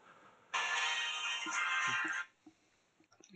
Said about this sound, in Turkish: Pardon telefonum çaldı.